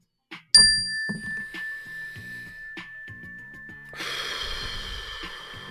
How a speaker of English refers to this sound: Mindfulness, let's take a mindfulness meditation breath when you hear this bell. Just take a deep breath with me, ready?